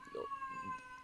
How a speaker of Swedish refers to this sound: Jag trodde att det var min dotter som skrek. Nej, det är min katt. Men de har ungefär samma frekvens. Ja, de har ungefär samma frekvens.